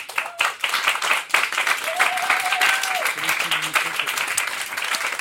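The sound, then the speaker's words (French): Sustained audience applause for a newly introduced music trio, a dense crackle of many hands clapping steadily for about five seconds, with a few faint tonal murmurs and a brief whistle-like tone poking through the noise. “On peut les applaudir.”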